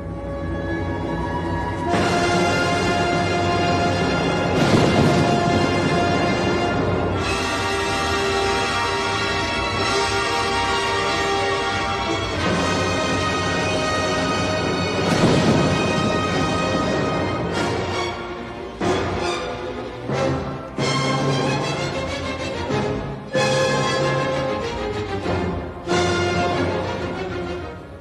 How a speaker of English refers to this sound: the many different and contrasting rhythms within the storm sequence in Beethoven's Pastoral Symphony